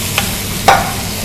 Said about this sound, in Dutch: Ik ga deze op het fornuis zetten. Ik zet mijn warmtebron of mijn afzuiger aan, mijn zuiger. En ik ga even in de spekjes roeren.